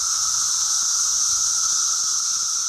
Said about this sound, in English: If you think back to the summer of 2021, perhaps you'll recall that lots of folks in the eastern U.S. were hearing the sounds of cicadas.